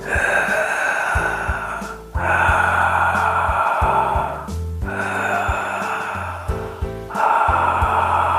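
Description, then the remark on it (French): Loud, throaty Darth Vader-style breathing done as a breathing exercise, alternating with silent breaths: four long, rasping breaths, each a few seconds long with brief pauses between them, steady and forceful with a hoarse rush of air. “Deux respirations Dark Vador et deux respirations sans bruit.”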